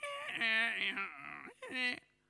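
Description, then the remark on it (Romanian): A voice mimics a badly tuned violin with two wavering, whiny, sliding tones, a longer one followed by a short one after a brief pause, fairly loud. “Cum ar fi sunat vioara în mâna lui Enescu dacă era dezacordată?”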